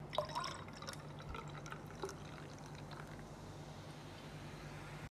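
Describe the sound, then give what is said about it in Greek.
A drink is poured into a glass in one steady, quiet stream lasting several seconds, with a few faint splashes near the start and no voices. “Οπότε, γιατί να μην βάλουμε ένα ποτήρι και να ξεκινήσουμε.”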